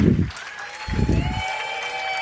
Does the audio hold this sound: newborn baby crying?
no